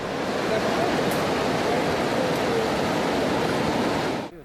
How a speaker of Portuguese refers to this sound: A cheia do rio Manhuaçu é o resultado do rompimento de uma represa na cidade de Orizânia, a mais de 100 quilômetros. Esse é o momento exato que a água desce destruindo tudo que encontra pela frente.